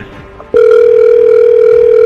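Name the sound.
telephone ringing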